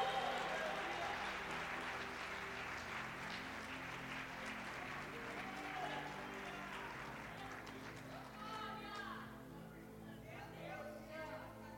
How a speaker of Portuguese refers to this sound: Começa a aplaudir o Senhor em nome de Jesus.